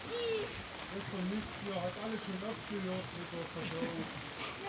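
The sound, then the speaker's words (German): A brief rain shower: steady rain patters and hisses throughout, a dense wash of falling drops, with a voice talking quietly underneath. “so eine kurze Husche hat man schon lange nicht mehr.”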